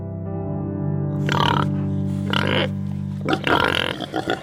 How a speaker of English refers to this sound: Though Mizra no longer raises or sells pigs, it does keep a small, snorting reminder of its porcine past.